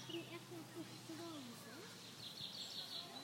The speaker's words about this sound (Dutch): Al die vogels, hè? dat is zo prachtig. Hoewel ik wel ver weg waaimachines machines hoor en eh, brandmachines enzovoort. Maar er zijn al heel veel vogels de tijd gehoord. Dat is wel heel lekker.